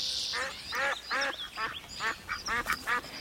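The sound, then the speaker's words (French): An agitated duck quacks rapidly and insistently, about eight harsh, raspy calls in quick succession, fairly loud, with faint high background noise. “Où l'on rencontre sous un cerisier une petite fille nommée Olga et un canard très énervé.”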